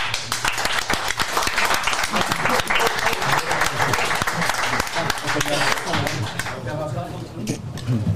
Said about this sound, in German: Vielen Dank für die super tolle Feuershow. Applaus bitte.